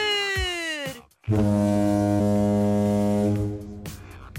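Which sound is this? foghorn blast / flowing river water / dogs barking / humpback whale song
foghorn blast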